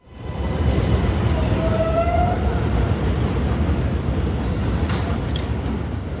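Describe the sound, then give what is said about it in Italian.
A New York subway train rumbles steadily along the tracks, a loud, dense roar with rattling and screeching metal whines rising over it. No one speaks. “Poi sono atterrato e ho preso la metropolitana, la mitica subway newyorkese che cade a pezzi. A sentirla, la nostalgia del viaggio diventa irresistibile.”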